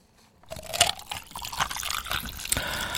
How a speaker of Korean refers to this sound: 아, 이게요. 얼음 가득한 컵에 물 따르는 소리입니다. 얼음 골골 물이 이렇게 스며들죠.